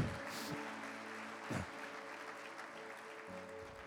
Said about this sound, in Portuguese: Vamos aplaudir o Senhor.